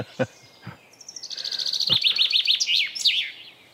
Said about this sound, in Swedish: var det bofink det eller? Det var bofinken det. Ja, det är liksom allmogen.